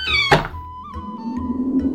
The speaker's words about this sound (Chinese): 忽然传来了敲门声。这谁呀？正看到关键时刻了。屈原一边嘟囔，一边去开门。